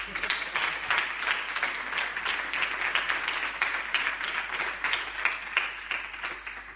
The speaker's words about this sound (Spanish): Ahora ya sí, podéis aplaudir.